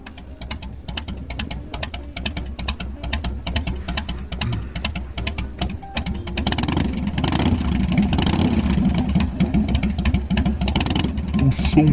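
A motorcycle engine rumbles with a steady pulsing beat, then revs up and grows louder and rougher about halfway through, staying strong to the end.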